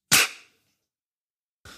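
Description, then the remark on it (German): A single loud, sharp hand clap rings out and fades quickly, followed after a pause by the start of another crisp clap at the very end; no voices. “Drei, zwei, eins, klatsch!”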